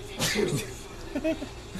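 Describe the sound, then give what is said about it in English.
A single sharp sneeze bursts out, followed by a short breathy vocal trail and a bit of quiet murmuring afterward. “bless you.”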